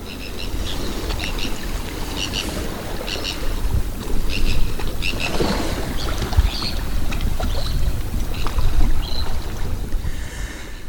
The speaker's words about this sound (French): Salut les amis alors je vous décris, j'espère que le vent va pas foirer tout mon enregistrement. Bon, a priori non. Je suis à Saint-Briac-sur-Mer.